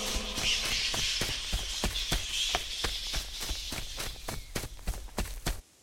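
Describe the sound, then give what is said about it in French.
Quick, evenly paced running footsteps of someone fleeing through a forest, about twenty sharp thuds over a steady airy hiss, stopping abruptly near the end with no voices. “Anthony prend la fuite à travers la forêt.”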